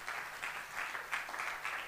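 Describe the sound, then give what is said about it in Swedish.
Steady applause from a crowd at a church worship night, for those attending for the first time; a dense wash of many hands clapping at once, moderately loud and continuous with slight swells, no voices standing out. “Hur många har inte varit på worship nights innan? Applåd!”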